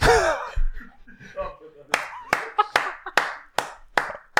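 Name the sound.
clapping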